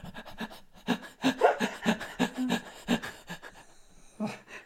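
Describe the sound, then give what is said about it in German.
A person pants heavily and rapidly, a quick run of loud, breathy huffs in a steady rhythm, with no talking. “da hechelt”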